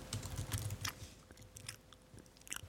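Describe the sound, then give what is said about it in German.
Wet lip-smacking and chewing with soft crunchy bites as someone eats an omelette, repeating in an uneven rhythm, quiet overall with no talking. “Ja, also lasst euch von diesem Schmatzen hier.”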